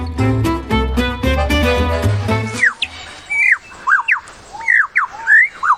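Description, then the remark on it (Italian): A short stretch of music gives way to the call of one of the best-known songbirds in the world: a rapid series of bright, sliding whistled notes and chirps, clear and fairly loud, repeated in quick bursts with short gaps. “Questo è solo uno dei suoni di uno degli uccelli canori più conosciuti al mondo.”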